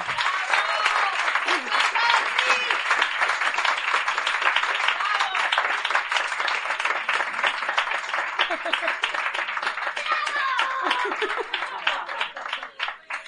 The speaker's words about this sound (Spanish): Os pido un fuerte aplauso, por favor